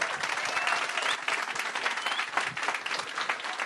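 Steady applause from a crowd welcoming a guest, a dense crackle of many hands clapping at once, holding at an even, moderately loud level for a few seconds without any voices.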